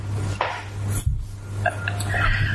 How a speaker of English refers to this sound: So we have some cards over here with questions, random questions on them. Okay. I'm going to shuffle them.